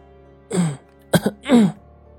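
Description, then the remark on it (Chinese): A woman outside gives two heavy, drawn-out coughs with a voiced, throat-clearing rasp, a short sharp catch of breath between them, against an otherwise quiet background. “外头的女人突然重重的咳嗽两声，整个周围的气氛瞬间一冷。”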